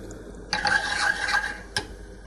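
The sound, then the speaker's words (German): A metal cooking pot is pushed to the back of a stovetop, scraping in one grinding slide lasting about a second, followed by a short clank as it settles, moderately loud with no talking. “Deswegen schiebe ich mal den Pott nach hinten und mach vorne.”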